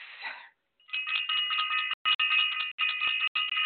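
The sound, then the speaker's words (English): A bell is rung for the Self Invest community, ringing rapidly and continuously and loud, its bright metallic tone repeating in quick strokes with a few brief pauses, after a short rustling noise at the start. “Absolutely positively must ring the bell for self-invested.”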